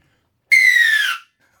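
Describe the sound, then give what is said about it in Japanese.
A single loud, sustained rugby referee's kickoff whistle blast lasting under a second, shrill and steady with a slightly falling pitch, then cutting off cleanly into silence. “大きな音が鳴りますので今車を運転されている方お気をつけくださいねびっくりしないようにお願いします、ね、はい、キックオフの笛キックオフの笛”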